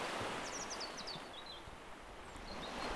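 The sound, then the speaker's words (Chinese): A steady, hissing wash of ocean waves rolling on the shore on a hot summer afternoon under casuarina trees, swelling slightly toward the end, with a quick series of high bird chirps in the first half. “在炎炎夏日里，木麻黄树下的午后，伴随着海浪的声音，想和大家介绍一下盐分地带这个地方。”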